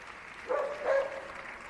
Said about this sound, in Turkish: Alışkın olmadığımız bir ses tabii genel kurulda. E, genel, genel kurulda havlama sesleri, köpek havlaması duyuldu ve parlamenterler, Avrupa parlamenterleri de buna şaşırdı ve gülümsedi.